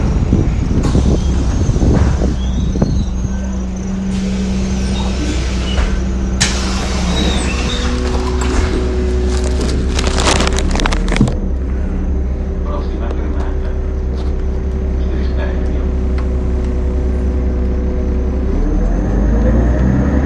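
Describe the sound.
A bus pulls in with a heavy, steady engine rumble and droning low tones, a burst of hissing around the middle, then settles into a continuous idle hum; faint voices murmur underneath.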